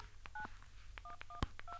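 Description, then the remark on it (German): Four short two-tone keypad beeps sound at an uneven pace as numbers are dialed on a phone, each accompanied by soft button clicks, with one sharper click near the end. “Wenn ich jetzt hier was wähle und es weglöscht, piept es.”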